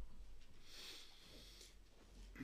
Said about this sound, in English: Still hear some pages turning. I'll give it a second or two more.